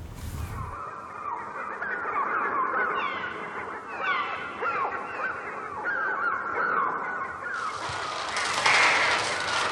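A dense, continuous chorus of harsh bird screeches and honking cries fills a film scene of a bird attack by parakeets, gulls and crows, many birds calling at once in overlapping bursts, loud, with a rising intensity near the end.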